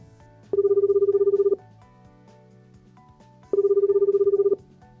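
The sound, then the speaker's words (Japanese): Two rings of a phone ringback tone as a telephone call is being connected. Each ring is about a second long with a steady pulsing buzz, spaced apart over soft background music, loud and clear with no voices. “中河内彩香さんと電話お電話の方つないでいきたいと思います”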